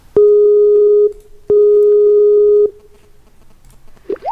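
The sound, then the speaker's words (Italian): Two long, steady electronic ringing tones of an outgoing phone call sound loudly, each lasting about a second with a short gap between, followed by quiet line noise and a brief faint voice at the end. “Non capisco perché stava chiamando te se quando lo chiamiamo noi non risponde.”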